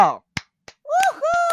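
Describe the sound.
A few sharp, separate hand claps, spaced irregularly, mixed with a voice making drawn-out, sung-sounding vocal noises before and after them.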